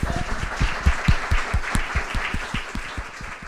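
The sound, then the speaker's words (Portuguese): An audience claps steadily for a few seconds to celebrate two years of Fémina, a dense wash of many hands with some sharper individual claps standing out, fairly loud and without any talking over it. “Mas não é só uh, um dia especial por esse motivo, é também o dia em que celebramos dois anos de Fémina e por isso também quero pedir o vosso aplauso.”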